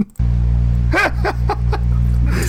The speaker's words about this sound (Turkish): Son kez şu pervaneyi açayım da insanların kulağı sikilsin.